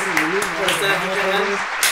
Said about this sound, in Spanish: Un pinche aplauso por pues Muchas gracias.